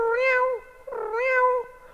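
Two drawn-out cat meows, one after the other, each rising then falling in pitch. They sound fairly loud, with a short pause between them and no talking.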